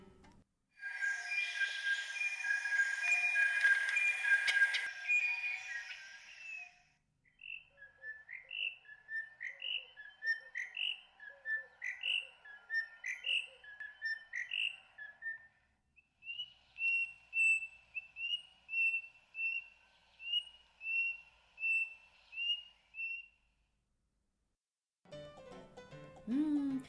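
Song of a white-starred robin, a Ugandan bird of the flycatcher family that sings to defend its territory: a dense burst of clear whistled notes, then a series of short rising whistled phrases repeated rhythmically, followed by a run of steady high whistles, fairly loud with no talking.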